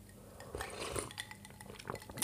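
Ice cubes clink and rattle against the sides of a glass of ice water in quick, irregular bursts, bright and tinkling over a low background hum, with no voices.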